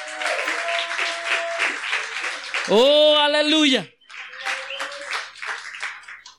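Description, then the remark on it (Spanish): An audience claps loudly and steadily for the Lord Jesus Christ during preaching, a dense, continuous burst, with a voice calling out over the applause and a sustained sung or shouted exclamation rising above it midway. “Denle un aplauso fuerte al Señor Jesucristo porque Él es bueno.”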